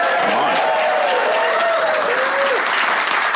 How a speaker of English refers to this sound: You're you're a live applause sign.